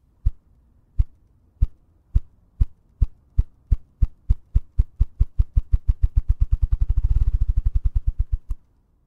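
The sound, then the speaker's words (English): A ruffed grouse drums, perched on a log and beating its wings against its body: deep, muffled thumps start slow and evenly spaced, then speed up into a rapid, fluttering roll before stopping. No voices are heard. “And when a rough grouse is drumming, it he takes he gets up on a log, gets up on a perch, and beats his wings on his body, and it makes this noise.”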